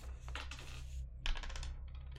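Dice clatter across a hard tabletop in two quick bursts of rattling clicks, fairly crisp, rolled for a fear check in a role-playing game, with a steady low hum underneath and no one speaking.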